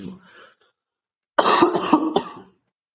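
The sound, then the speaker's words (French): A short burst of harsh coughing, several rapid coughs in a row after a brief quieter throat sound and a moment of silence. “quelqu'un se met à tousser, excusez-le, madame, il a une chatte dans la gorge.”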